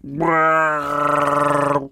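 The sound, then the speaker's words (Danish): A loud creature roar made from bear sounds dubbed over a film character, bear-like and growling, with a rich harmonic tone. It lasts about two seconds, shifting midway into a rougher, warbling bellow before cutting off. No one speaks. “det er jo bjørnelyd, der er lagt henover.”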